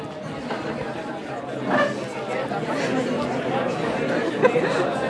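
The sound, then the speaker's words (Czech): An audience talking in small discussion groups for two or three minutes, overlapping conversations forming a steady beehive-like hum of indistinct chatter with no single voice standing out, moderately loud throughout. “Dobře, a bzučár na tomu říkám proto, protože chci slyšet to bzučení, takový ten včelí úl tady, a, a, abychom tady měli tu atmosféru.”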